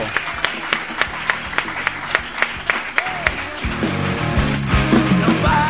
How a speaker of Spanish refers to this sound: Así es que para Vero, un aplauso grande, grande para Vero.